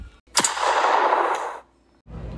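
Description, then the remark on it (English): A single distant gunshot on a mountain cracks sharply, then a broad rumbling echo rolls on for about a second before fading; no voices are present. “A gunshot goes off in the distance.”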